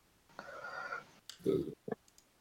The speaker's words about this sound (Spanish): Sí, se trabó ahí.